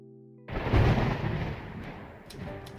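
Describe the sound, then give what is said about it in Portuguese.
A rainstorm with a deep rumble of thunder that swells after a brief quiet hum, then settles into steady hissing rain. No voices are heard. “Enquanto chove, Jorge está sentado na sala escrevendo em sua máquina de escrever”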